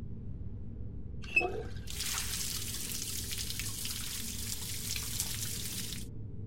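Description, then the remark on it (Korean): A tap turns on after a brief metallic click and water pours in a steady, hissing stream for about four seconds as hands are washed clean under it, before it shuts off abruptly, over a low background hum. “그러고는 수도에서 나오는 물로 손을 깨끗이 씻고 옆방으로 들어갔다.”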